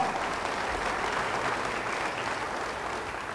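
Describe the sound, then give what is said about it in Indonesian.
A large church audience applauds loudly as a sign of believing, a dense, steady wash of many hands clapping that holds for several seconds with no voices over it. “Yang percaya beri tepuk tangan yang meriah.”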